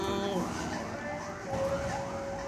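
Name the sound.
ambulance siren passing outside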